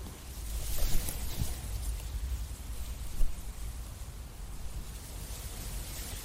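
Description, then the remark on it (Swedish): A steady, broad rushing hiss of wind through trees, with a low rumble underneath and slight swells in intensity, continuous throughout with no voices. “Det här är träd i vinden. Lyssna på det här.”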